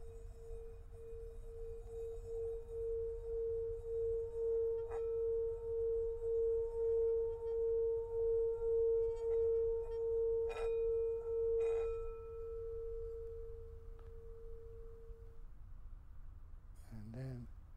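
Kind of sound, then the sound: signal or alarm, gong ringing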